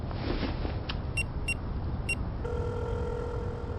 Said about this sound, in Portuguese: O telefone toca, do outro lado da linha, uma voz responde.